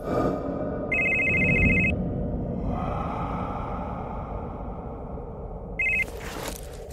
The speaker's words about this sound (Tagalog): Patakbo na ako noon papalabas nang biglang magring ang cellphone na itim na hawak ko.